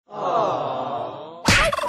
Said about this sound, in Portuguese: oh meu Deus! Um peru.